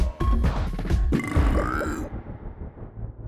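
A loud burp rumbles out for about two seconds with a gravelly, croaking texture, then trails off into a quieter low tail. No one speaks.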